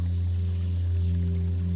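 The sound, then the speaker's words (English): Water flows steadily and continuously, an even rush with a low droning undertone and no voices. “This week's meditations are full of water sounds.”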